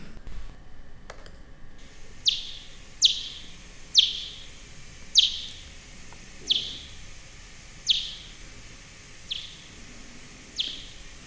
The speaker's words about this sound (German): Genau, so klingt es. Oder das sind ja dann die ganz unterschiedlichen, das ist ja auch so spannend. Mhm. Was war das jetzt für eine? Das war eine Myotis myotis.